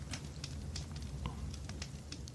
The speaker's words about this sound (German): ach so, ich kann euch ein kleines Campfire mal anmachen.